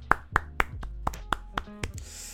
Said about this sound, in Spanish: así que muchas gracias gente. Aplausos para vosotros también.